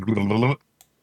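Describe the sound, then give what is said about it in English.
A single short, crisp pop of the lid coming off a bottle of bacon soda, heard alone just after a sustained voiced hum from someone. “No, it's I the did hear the soda. lid pop off on this one.”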